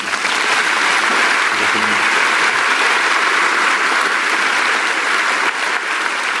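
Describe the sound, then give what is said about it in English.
A large audience claps steadily and loudly, a dense wash of applause that fills the whole stretch without letting up, full-bodied. “Give him a hand.”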